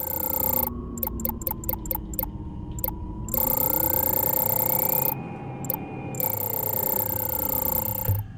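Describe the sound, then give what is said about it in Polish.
A synthetic video game sound of the player's spaceship accelerating, pitched higher as it speeds up: a steady electronic whine that stutters in quick pulses at first, then hums continuously with pitch slowly sliding up and down, loud. “I jeśli przyspieszamy, to nasz statek brzmi, oczywiście jego dźwięk jest wyższy, a brzmi to tak.”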